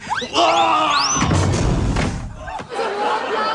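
Someone falls over another person and crashes down over a chair, getting jammed over it, with a heavy, low thud and a rumbling clatter that lasts about a second, after raised, excited voices; a sharp knock follows shortly after.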